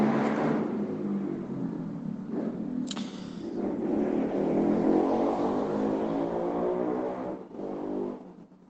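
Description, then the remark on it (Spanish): A motorcycle passes by outside, its engine drone building to a steady roar before tapering off as it moves away; no voices are heard. “Ahí pasó la moto.”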